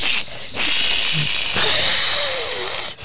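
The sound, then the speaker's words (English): People hiss at each other with their voices in long, loud, breathy bursts, not out of anger: one sustained hiss, then a second starting right after it, with no words spoken. “Uh, so we're just uh, so it's just to inform radio people we're hissing at each other now, and we're not actually mad at each other and we're arguing.”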